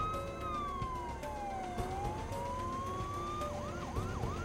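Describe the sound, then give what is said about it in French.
A deputy sheriff's police car siren wails in a long slow sweep down and back up, then switches to a faster yelping cycle, loud over a steady rumble of road noise. “La voiture du shérif adjoint Price était l'une des deux autres voitures. Il alluma son gyrophare.”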